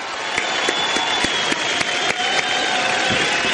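A crowd applauds steadily, a dense wash of many hands clapping at full volume, with a few sharper individual claps popping out of the texture throughout.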